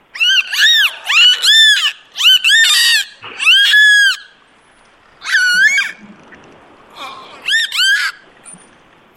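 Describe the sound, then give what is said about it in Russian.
A dolphin lets out a series of loud, high, squealing calls in about seven quick bursts, each made of rapid rising-and-falling squeaks, with short pauses between them and no talking. “Вот что нам дельфин ответил.”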